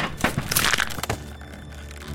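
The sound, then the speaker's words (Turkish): A loud crunching crack, a neck breaking as a man hangs himself by a rope from a pull-up bar in his home gym, made of several sharp splintering bursts in the first second that fade into a low, dull resonance. “Evet, boynu kırılmıştı.”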